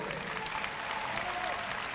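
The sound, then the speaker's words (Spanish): An audience applauds a singer steadily, a dense wash of many hands clapping at once with no pauses, sustained and fairly loud throughout. “un aplauso muy fuerte para el señor … fíjate”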